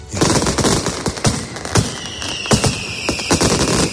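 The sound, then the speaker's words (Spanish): A mascletà firecracker barrage in Madrid: dense, rapid bangs and cracks crowding together at a steady loud level, with sharper heavy blasts punching through the continuous crackle. “Pues como aquí repasamos lo que hace ruido, vamos con el colmo de los ruidos, la mascleta de ayer en Madrid.”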